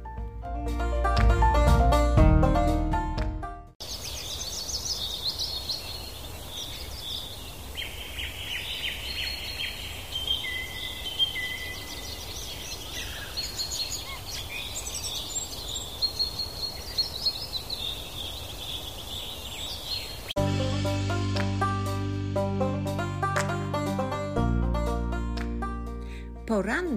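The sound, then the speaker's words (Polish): Birds chirp and warble in an outdoor ambience, their bright calls scattered over a steady background hiss. Music plays briefly before and after the birdsong. “śpiew ptaków rozchodził się po okolicy.”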